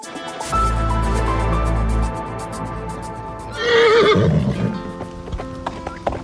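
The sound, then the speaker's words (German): Rhythmic hoofbeats of galloping horses in Mecklenburg-Vorpommern, Germany, pound steadily, followed by a loud, shrill horse whinny rising and falling near the middle, with more hoof clatter continuing afterward. “Gauchos und Pferde, die durch die Pampa galoppieren.”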